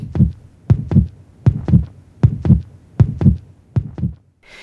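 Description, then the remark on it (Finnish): A steady human heartbeat thumps in paired low beats, lub-dub, repeating about six times at an even rhythm, fairly loud with no voices. “Silloin sydämen äänet alkavat kuulua eräänlaisena jyskytyksenä.”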